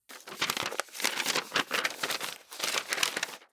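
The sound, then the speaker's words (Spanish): Paper rustles and crinkles in several quick bursts as paper and a pencil are brought, a dry papery handling sound with short pauses between movements, no voices present. “traiga papel y lápiz.”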